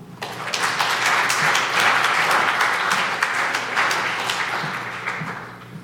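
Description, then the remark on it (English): A crowd applauds in a church, welcoming a guest artist: many hands clapping at once in a dense, sustained wash of sound for several seconds, no voices standing out. “Um, I thought we'd had discussions about how oh, I'm so Lutheran that all clapping in church, unless it's for children doing something at any level or Christ defeating death.”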